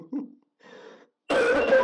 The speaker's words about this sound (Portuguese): não é nem que eu tô com suspeito de corona, mas eu tô com a tosse fodida faz uns três dias.